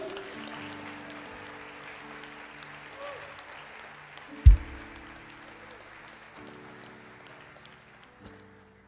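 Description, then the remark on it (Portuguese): A church audience claps steadily in dense, continuous applause for Jesus, with a sustained hum of voices, broken by a sharp low thump midway and a smaller bump near the end. “Dá um aplauso a Jesus.”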